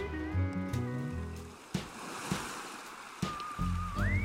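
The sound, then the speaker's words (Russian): Sea waves lap and wash in soft, rolling surges with a few sharper splashes at sunset in the evening, heard alongside steady tonal music and a rising whistle-like tone near the end. “Не зря мы на море отправились.”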